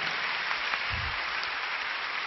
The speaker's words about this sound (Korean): 다시 한번 우리 대청 아울리치 팀에게 뜨거운 박수로 격려와 응원해 주시기 바랍니다.